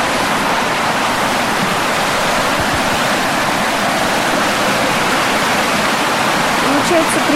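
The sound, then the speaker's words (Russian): The Vaenga River, near where it falls into the Kola Bay, roars down in a fast rushing torrent, a loud, steady wash of white noise that stays constant throughout, with no breaks or changes. “Если смотреть в сторону от Кольского залива, в верховье реки, там она спокойно разливается в красивое тихое озеро, а вниз обрушивается стремительным потоком, который весело прозвучит и для нас с вами.”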